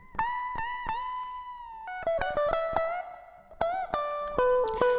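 A clean electric guitar plays a short, simple solo phrase of plucked single notes through an effects plugin, each note ringing out with a wash of reverb and a short delay of soft repeating echoes that fades away, clear.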